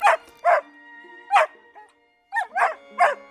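A dog barks furiously, about six loud, sharp barks in quick irregular bursts with a brief pause in the middle and no voices.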